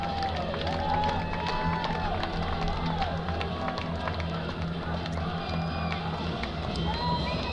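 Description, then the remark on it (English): A large stadium crowd at the EasyPost Hawaii Bowl college football game on Christmas Eve, with Middle Tennessee playing, fills the space with a steady, dense roar of voices, scattered shouts and whistles rising over the constant murmur, with no single voice standing out. “Again, a nice crowd here on Christmas Eve for the EasyPost Hawaii Bowl.”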